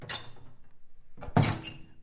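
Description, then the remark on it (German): An office door is pushed shut, a short scraping swing followed by a solid thunk and a brief rattle of the latch, with no voices. “schob die junge Frau aus ihrem Büro und schloss wieder die Tür hinter ihr.”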